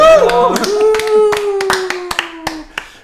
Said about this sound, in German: äh, wir haben uns absichtlich dafür entschieden, ja, wir lassen die Hintergrundgeräusche eingeschaltet. Applaus für die Hintergrundgeräusche.